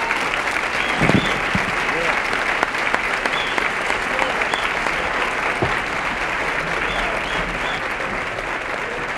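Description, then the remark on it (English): Sustained audience applause welcoming a guitarist to the stand, a dense, steady clatter of many hands clapping at a fairly loud, even level for several seconds, with a few sharper claps standing out. “Join me in expressing some appreciation to Mr.”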